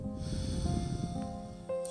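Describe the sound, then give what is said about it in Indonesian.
A long, steady exhale of breath after a deep inhale, fairly loud, its airy rush running nearly two seconds while soft sustained musical tones hum underneath. “Menarik napas dalam-dalam sebelum ku hembuskan cukup panjang.”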